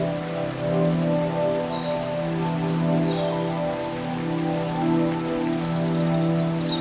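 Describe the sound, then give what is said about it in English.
A steady wash of falling water from a waterfall in a forest, heard in the distance, soft and continuous, with a low droning hum beneath and a few faint bird chirps overhead. “As you walk deeper into the forest, you begin to hear the gentle sound of a waterfall in the distance.”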